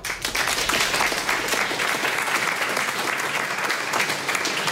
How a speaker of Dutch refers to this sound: Wat ik als allerlaatste natuurlijk wil, is eh, Han de Jong, onze huiseconoom eh, van BNR, heel erg eh, bedanken. Een warm applaus voor Han.